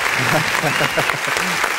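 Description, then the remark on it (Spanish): Steady applause in the Radio Estudiante booth at the close of the program, a dense, even patter of clapping that fills the whole clip at constant loudness, with people talking and calling out over it. “Aplausos, por favor.”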